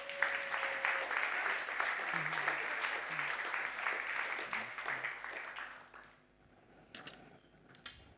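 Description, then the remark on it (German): A crowd applauds steadily with dense, crackling clapping for about six seconds, then it fades out, leaving only a few scattered claps at the end. “Ein großer Applaus für euch, danke vielmals.”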